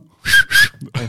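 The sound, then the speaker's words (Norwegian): Two loud, sharp mouth whistles in quick succession, standing in for a real whistle, each a steady high tone, followed by a brief rustle and the start of a voice. “Beklager den typen svei eh, Jeg eh, tenkte jeg skulle ha opp fløyta, men uh, måtte lage egen time.”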